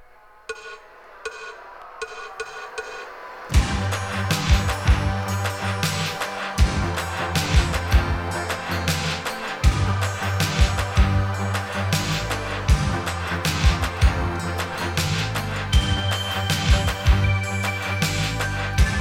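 A recorded pop song opens with a few sparse, quiet notes, then a full band kicks in loudly after a few seconds with a steady drum beat and deep bass driving on.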